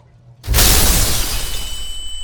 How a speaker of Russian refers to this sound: Вещество получилось нестабильным и очень взрывоопасным, а при неосторожной тряске или ударе реагирует как нитроглицерин, взрывается.